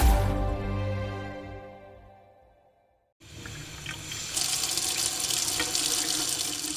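After a fading musical tone dies away, a kitchen tap is turned on and fresh drinking water rushes out, growing stronger partway through and then running steadily into the sink.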